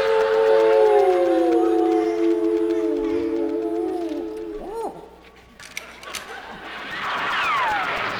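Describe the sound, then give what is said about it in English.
Several voices imitate coyotes, layering long, wavering howls that rise and fall together, then break into short yips and sliding cries, loud and close with no speech. “due to illness, the part of the third coyote in tonight's opening will be played by a formerly wayward gerbil.”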